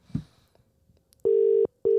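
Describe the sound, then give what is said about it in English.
A phone dialing tone rings out loud and steady as a call is placed to a friend, one long buzzing beep followed by the start of another after a short gap, with faint rustling just before it. “I'm calling this brother right here this is my guy.”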